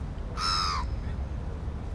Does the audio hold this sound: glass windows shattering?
no